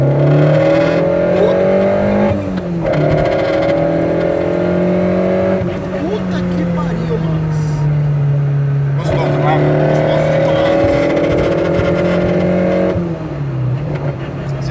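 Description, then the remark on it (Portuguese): A loud car exhaust roars steadily while driving, its engine tone rising as it accelerates and dropping briefly at a few gear shifts, dominant throughout. “não tivesse esse barulho infernal do escapamento Sim.”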